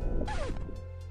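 A person's back slams into a wooden door frame: one loud, heavy thump with a brief woody rattle and a low rumble that fades quickly, with no voices.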